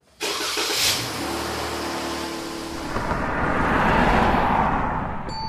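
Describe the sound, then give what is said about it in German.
A car engine rumbles, rising as the car is driven up and approaches, with a broad wash of tire and road noise swelling toward the end. “Gut, dann fahre ich schon mal einen Wagen vor.”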